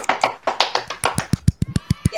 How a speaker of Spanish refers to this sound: Aplausos.